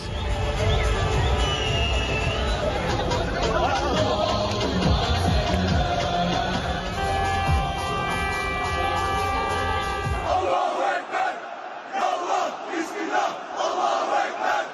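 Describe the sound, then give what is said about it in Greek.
A dense street crowd of supporters of Turkey's president, after his election result, roars, sings and chants, waving flags, with rhythmic shouted slogans and sustained honking horn blasts over the din, continuing loudly for several seconds before thinning into scattered cheers and voices. “Εκατομμύρια υποστηρικτέ του ξεχύνονται στου δρόμου, τραγουδούν, φωνάζουν συνθήματα, κορνάρουν και κουνούν σημαίε.”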